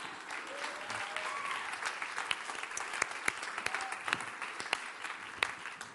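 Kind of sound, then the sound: crowd, audience applause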